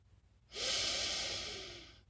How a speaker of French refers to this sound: Prenez une profonde inspiration